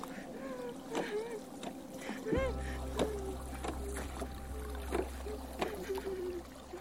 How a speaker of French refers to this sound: Mais les cris s'éteignent progressivement et l'on n'entend plus que le bruit des vagues, des rames et des sanglots.